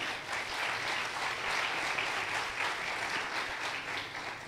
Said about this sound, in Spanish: Que alguien aplauda al Señor. Amén.